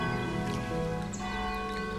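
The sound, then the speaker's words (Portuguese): Bells ring with a steady, layered shimmer of sustained tones, their overlapping hum filling the whole moment at a moderate, even volume with no voices present. “Esses sinos querem dizer, querem te acordar.”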